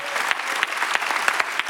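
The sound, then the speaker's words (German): A standing church audience claps in praise of God, dense overlapping handclaps with occasional sharper individual claps standing out, sustained and fairly loud throughout with no voices. “This time, even bigger applause to the only one who can save our lives.”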